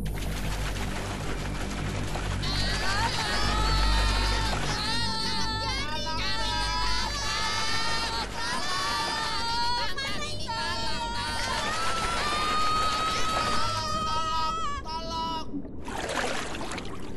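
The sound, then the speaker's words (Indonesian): Several high-pitched voices cry out and shout over one another for about twelve seconds, loud, against a steady watery background rumble, before cutting off abruptly. “Saat sudah agak jauh dari kerumunan ikan kecil tadi, tiba-tiba Dudu mendengar suara teriakan.”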